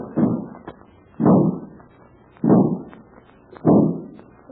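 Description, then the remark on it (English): A heavy cabinet being lifted and lugged across to the other wall in bursts: four loud, low, scraping thuds at a steady rhythm about a second apart, each swelling and fading, with no one talking. “He's lifting this heavy cabinet and lugging it across the other wall.”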